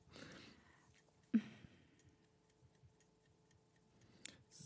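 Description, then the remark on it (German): A clock ticks steadily with soft, evenly spaced, quiet ticks. A few brief breathy rustles break in near the start and end, but no one speaks. “Oh nein, meine Uhr tickt.”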